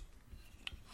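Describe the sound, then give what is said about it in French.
Quiet handling noises from a water bottle, picked up to take a sip of water: soft rubbing and scraping, with a couple of small sharp clicks near the end. It's faint, and nobody speaks. “Euh, c'est le bruit de ma gourde.”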